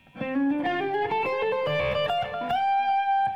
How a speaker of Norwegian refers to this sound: Men, men sånn, i den uh, gitarsoloen som er der, så kommer det et løp uh, i slutten der.